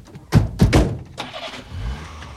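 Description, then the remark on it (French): A few heavy thunks like car doors closing, then the engine of an old blue car sputters to life and settles into a low, rough idle that swells slightly, with no voices. “On monte dans notre vieille voiture bleue.”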